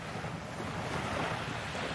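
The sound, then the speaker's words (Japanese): Ocean waves wash onto the shore in a steady, broad roar of surf, with wind rushing across the microphone and no voices present. “海の音を聞くことができなかった方もたくさんいらっしゃるんじゃないかなと思いますので今日は海の音を聞いてもらおうと思いますもう9月になっちゃったけど存分にお楽しみください”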